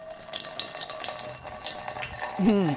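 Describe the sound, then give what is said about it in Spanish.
Cider is poured in Asturias into the glass used for serving it, splashing steadily in a continuous fizzing spatter with light clinks, and a brief voice rises near the end. “Pues hoy se ha ido al vaso en el que se escancia la sidra, que suena así.”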